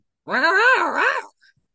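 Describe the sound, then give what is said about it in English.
A person imitates a cougar growl: a single drawn-out growl about a second long, rising and dipping in pitch with a raspy, strained tone, fairly loud, followed by silence. “Sorry, I need to do the cougar roar better, cougar growl better.”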